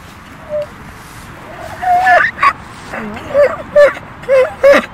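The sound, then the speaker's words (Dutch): A donkey in a large meadow brays weakly and hoarsely, breaking into a string of short, strained honks that repeat in uneven bursts over a steady background hiss. “Hij klinkt niet erg goed, heeft hangoortjes en zielige ogen. Maar of deze ezel echt depressief en verwaarloosd is, hmm, moeilijk te zeggen.”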